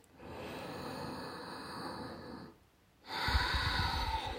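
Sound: ujjayi breathing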